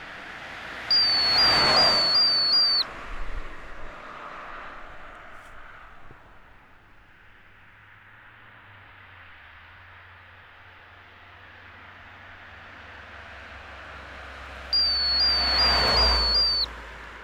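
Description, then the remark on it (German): A roadside deer warning device beside a federal highway (Bundesstraße), there to warn deer of approaching cars, gives off a high, warbling electronic alarm tone in two short bursts as cars whoosh past, with a low traffic rumble filling the gap between them. “Gefunden habe ich einige Exemplare davon neben der Bundesstraße, wo sie Rehe vor herannahenden Autos warnen.”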